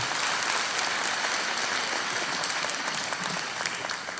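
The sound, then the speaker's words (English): A large gathering breaks into sustained applause for a woman invited up to the front, dense clapping at a steady level throughout with a faint murmur of voices underneath. “Um, give her a big round of applause.”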